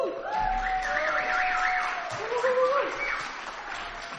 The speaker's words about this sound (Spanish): Otro aplauso.